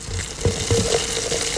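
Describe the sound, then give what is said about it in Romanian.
A bottle of cava is opened, followed by a steady, bright fizzing and hiss of sparkling wine, with a few soft clinks and bubbling bursts over about a second and a half. “și de asta, în cinstea voastră, și în cinstea tuturor celor care acum desfac prima țuică, noi deschidem o sticlă de cava.”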